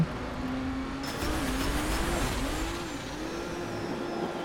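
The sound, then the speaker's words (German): A racing car engine in a racing video game drones steadily, its pitch rising and dipping as the throttle is briefly lifted, used like braking, and reapplied, over a constant wash of road and wind noise, with no voices. “Ich habe jetzt mal früher Gas weggenommen. Also immer nur kurz Gas weggeben, das ist wie in so ein Bremsen.”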